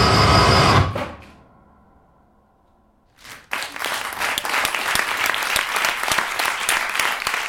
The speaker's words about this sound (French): Les applaudissements, ce sont ceux des quelques professionnels qui ont eu la chance d'assister au spectacle Seras-tu là un seul en scène de Solal Boulounine.